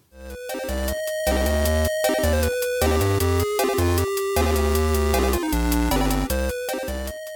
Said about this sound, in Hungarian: Szóval, ha nincs más mondani valód, akkor guruljon az intro. Guruljon.